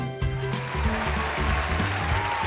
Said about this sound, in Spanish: Esto va para ellos, hombre. Desde aquí una gran ovación que, sé que me están escuchando y de verdad que son los verdaderos motores del cambio en el cole.